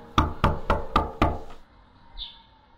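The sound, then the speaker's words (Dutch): Five firm knocks by a repairman on the front door of an apartment, after a doorbell that did not seem to work, in a quick, even rhythm and fairly loud, followed by a quiet pause with a faint, brief sound near the end. “De monteur drukte op de bel die niet leek te functioneren, en klopte toen een paar keer aan.”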